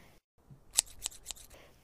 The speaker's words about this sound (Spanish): El ruido de las tijeras parecía llevar el ritmo de la conversación.